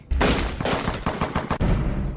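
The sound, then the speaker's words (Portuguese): A rapid volley of gunfire, several sharp shots cracking in quick succession, loud, with no voices present. “Mas o mais importante é que não tenham medo dos ruídos dos tiros.”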